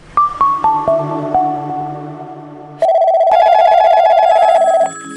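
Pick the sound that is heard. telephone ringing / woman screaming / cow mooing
telephone ringing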